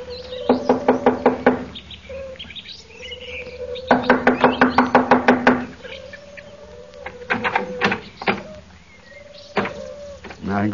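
Loud knocking on a door comes in two quick flurries of rapid raps, followed by a few slower, separate knocks, with no voices.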